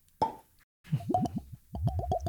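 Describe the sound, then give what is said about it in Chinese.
A bottle of Plantation rum from Fiji is uncorked with a single hollow pop, then after a brief pause comes a quick run of rhythmic glugs whose pitch climbs as the liquid pours out. “来 ASMR， 好 Plantation， 哦， 好听吗？？好听就是 美妙的 好酒 声音 好。”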